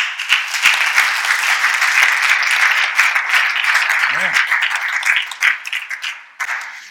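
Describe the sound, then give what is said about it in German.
A crowd applauds for the viewers at the start of a Bible message broadcast, a dense wash of clapping for several seconds that tapers off toward the end, with a brief short tone rising in the middle. “klatschen für die Zuschauer.”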